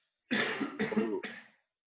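A quick run of three forceful sneezes in rapid succession, each a loud, breathy burst, with no talking around them.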